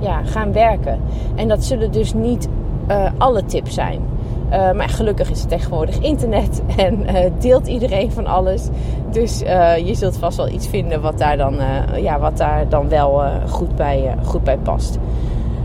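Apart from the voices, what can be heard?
car noise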